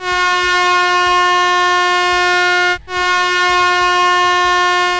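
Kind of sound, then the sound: sound effect, air horn blast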